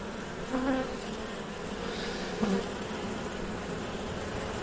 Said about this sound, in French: C'est sûr que c'est impressionnant la première fois qu'on euh, ouvre une ruche. Surtout quand c'est une belle colonie, ça grouille d'abeilles. Je sors le premier cadre, doucement, en faisant attention à n'écraser aucune abeille.